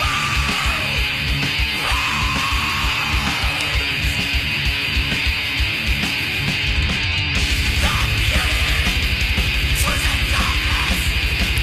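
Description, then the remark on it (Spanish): A loud, dense black metal-style song by a band from Gothenburg, Sweden, with harsh screamed rather than guttural vocals over thin, buzzing, saw-like guitars and rapid pounding drums; the wall of sound thickens further about two-thirds of the way through. “todavía tenía algunas características más black metaleras, si querés. Sonido más finito, más serrucho.”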